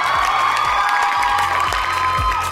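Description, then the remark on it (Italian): A dense burst of crowd applause with cheering and whoops, loud and continuous throughout, like a studio audience reacting; no one speaks over it. “perfetto applauso”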